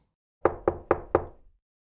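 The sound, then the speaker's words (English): Four firm knocks on a wooden door in quick, even succession, each a sharp thud with a brief resonant decay, clear with no voices. “He knocked on the door.”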